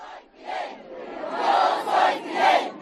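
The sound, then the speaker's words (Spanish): A large crowd chants a slogan in unison, the loud massed voices rising in rhythmic, repeated bursts that swell toward the end, with no single speaker standing out. “Dos elementos más completarían la escenografía ideada para inmortalizar el momento, un discurso de Castro del año 2000 en el que explica qué es revolución y un grito que tomaría forma días después y se estamparía en carteles y camisetas.”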